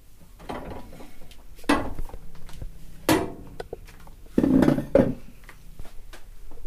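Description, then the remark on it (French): Irregular wooden knocks and scraping clunks, three or four distinct bumps, as someone settles onto a chair and handles a large wooden clamp, held between the legs to grip a piece of leather; no one talks. “Donc euh, là, c'est le moment où je vais m'installer sur une chaise.”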